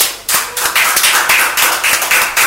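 Hand clapping starts after a brief quiet moment and continues steadily, loud, crisp claps falling in a fairly even rhythm with a busy, overlapping texture, as if several people are applauding together. No one speaks.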